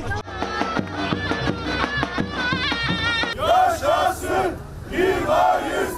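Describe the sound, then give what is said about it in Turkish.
A large crowd at a May Day rally in Mersin, Turkey, chants loudly in unison with rhythmic shouted slogans, first with steady percussive beats behind them, then shifting into rising, overlapping group shouts filling the space. “İşte Mersin, işte bir Mayıs.”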